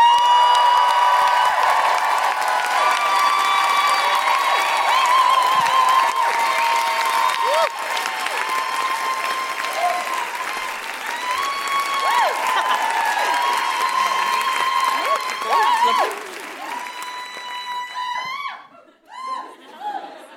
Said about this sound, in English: well, let's get ready to rumble right now because our next guest is a Newcastle local. Please put your hands together and make extraordinary Geordie woohooing noises